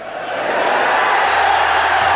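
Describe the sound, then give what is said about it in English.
A large stadium crowd at the Rugby World Cup cheers, along with Nelson Mandela, in a loud, continuous roar, a dense wash of many voices that holds steady throughout without any single voice standing out. “And Nelson Mandela is cheering along with the whole of the stadium.”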